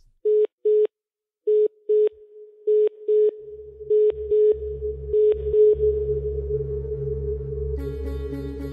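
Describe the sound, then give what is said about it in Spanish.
A telephone line tone pulses in short paired beeps as an incoming phone call is picked up, then becomes a steady tone as a low hum and static creep in, ending with a buzzy, crackly burst of line noise. “Voy a coger la llamada antes de que la pierda, ¿vale?”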